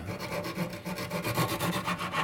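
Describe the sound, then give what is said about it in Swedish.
Steady back-and-forth rasping of a small saw cutting gingerbread pieces to size, with quick even strokes and no voices. “Det sågar vi till nu ska vi se.”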